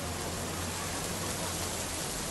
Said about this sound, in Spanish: al espejo marrón del río de la Plata lo sacuden millones y millones y millones de gotas de lluvia.